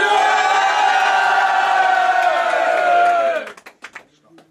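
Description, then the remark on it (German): A crowd at a Future of Battle Rap event cheers and yells loudly for a rap battle match in a sustained roar of overlapping voices and whoops, then the noise cuts off abruptly, leaving a few scattered shouts and claps. “Future of Battle Rap, mach mal Lärm für dieses Match an!”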